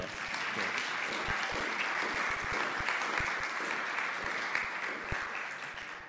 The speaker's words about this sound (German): Super, gib mal einen Applaus hier für die Bläser.